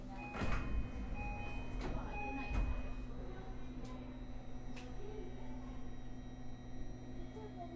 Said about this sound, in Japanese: ホーム側のドア一旦すべて開きます。ご注意ください。